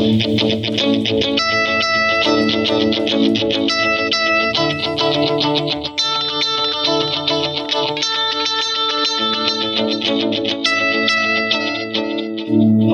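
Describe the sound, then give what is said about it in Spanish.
A distorted, effects-heavy electric guitar is played with the ridged edge of a pick, producing a dense, gritty stream of bright picked notes that stays steady and loud for the whole stretch, with no talking. “La doy vuelta por la parte corrugada de la uñeta, mira.”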